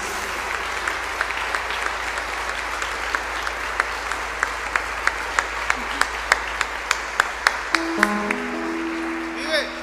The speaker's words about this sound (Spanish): Le damos un aplauso al Rey, a Jesús.